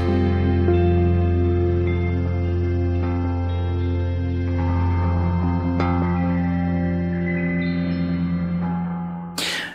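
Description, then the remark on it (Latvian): A song plays steadily at full volume on Radio Marija Latvija, rich sustained tones layered with heavy echo and effects, with no one talking over it, before it cuts off abruptly at the very end. “klausoties šo brīnišķīgo dziesmu, es atceros kādu tādu aizkustinošu savas bērnības epizodi, kad es biju mazs zēns.”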